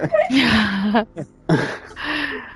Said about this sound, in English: is behind me gasping now.